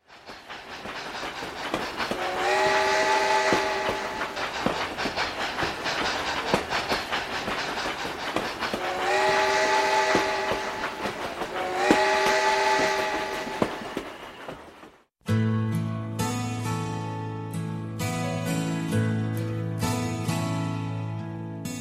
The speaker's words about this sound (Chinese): 有人说，回家的意义在风鸣的火车汽笛声里，轰隆的节奏像是儿时母亲的敦促。